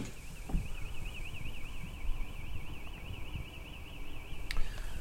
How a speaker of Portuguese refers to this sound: Pronto, isto é o barulho da rua às 0h25 digamos que não é muito tarde, não é? De facto, mas já não está ninguém esta hora na rua, obviamente, mas de momento estamos sem luz.